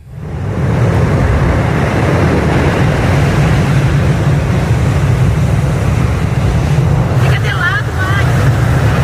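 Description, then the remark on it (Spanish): Steady, loud wind buffets the microphone over a continuous wash of surf on a beach with few people, water breaking against the sand in low white foam, with a deep rumbling roar and no clear breaks between waves. “Hoy hace un poco de viento, pero por lo demás parece que hayamos llegado al paraíso.”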